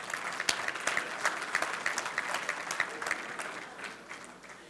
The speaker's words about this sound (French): Les hommes, on se donne une main d'applaudissement.